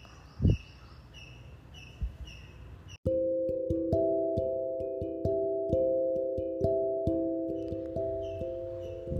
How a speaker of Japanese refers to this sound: まだね鳥の声が聞こえてるんですよねああなんか本当に嬉しいなーって思いますこうやって最後まで鳥の声と共にお付き合いくださいまして